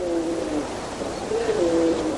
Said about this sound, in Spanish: Una bandada de palomas cruza el cielo.